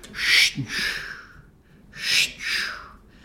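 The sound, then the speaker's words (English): A voice imitates slow, rhythmic breathing: two unhurried cycles, each an airy inhale followed by a longer exhale, with a short pause between them. “They're that predictable and slow, and it sort of sounds like like breathing.”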